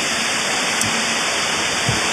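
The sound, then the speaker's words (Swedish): A black steam locomotive with bronze and green decorations releases big clouds of steam: a loud, steady, broad hiss that holds unbroken for the whole stretch, with a couple of faint low thumps underneath and no voices. “Vi väntar ut ångutsläppet här.”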